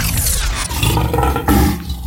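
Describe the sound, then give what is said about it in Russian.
A tiger's deep, contented rumbling growl rolls on steadily for about two seconds, loud, with a rough, throaty texture and no voices; the tiger, Shere Khan, grabs a microphone in his furry paws while rumbling. “Схватив микрофон пушистыми лапами и довольно урча, Шерхан начал себя активно хвалить.”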